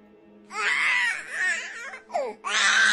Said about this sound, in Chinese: 西风，孩子的哭声，女人在抱怨，老人在咳嗽，打麻将的声音，